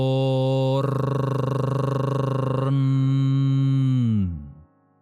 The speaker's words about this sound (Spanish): El mantra para abrir esa puerta es Torn, que se pronuncia alargando el sonido de cada vocal, así. Torn.